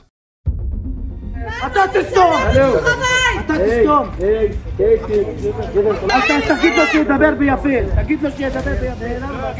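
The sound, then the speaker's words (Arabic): A crowd of settlers chants and shouts together in the streets and alleys of the Sheikh Jarrah neighbourhood in Jerusalem in the early morning hours, loud, the overlapping calls rising and falling in a continuous rowdy stream for several seconds. “أصوات مزعجة وصاخبة تلقي الرعب في قلوب الأطفال النائمين الحالمين ذلك ما تفعله هتافات جماعات المستوطنين حين يجوبون مع ساعات الصبح الأولى أزقة وشوارع حي الشيخ جراح بالقدس المحتلة ويعربدون فيها تحت حماية قوات الاحتلال الإسرائيلي”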